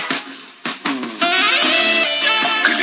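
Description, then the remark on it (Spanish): Cheesy nightclub-style music plays loudly on its own, opening with a few punchy stabbed chords before settling into bright, sustained synth-like tones with a steady beat. “Esta musiquita me suena así como a antro de no muy buenos bigotes.”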